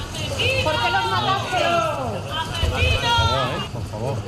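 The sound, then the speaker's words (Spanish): A crowd of residents at the courts in Barbate, Spain, shouting angrily all at once at eight detainees, calling them murderers ("asesinos"); a loud, continuous clamor of overlapping raised voices with no single speaker standing out. “Entre tanto, los ocho detenidos declaran desde primera hora de la mañana en los juzgados de Barbate, donde han sido recibidos por los vecinos que les han increpado al grito de asesinos.”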